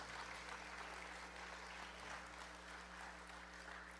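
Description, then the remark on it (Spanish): An audience claps steadily for several seconds as applause for the Lord, a dense, sustained wash of many hands with a low electrical hum underneath and no voices. “Dale un aplauso al Señor por esto.”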